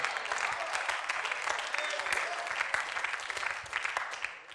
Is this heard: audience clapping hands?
yes